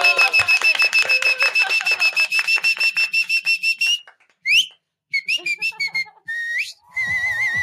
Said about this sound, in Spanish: Pues, ese, ese chiflidito y estuvo con, con, un coqueteo ahí. Tan guapas las chicas.